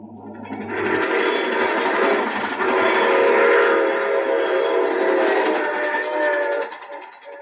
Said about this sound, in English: I take this same train every week at this time.